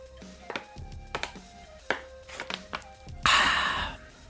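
Someone taking a sip of water: a series of sharp knocks and clinks of a glass or bottle being handled, then about a second of loud, airy rushing noise. No one speaks.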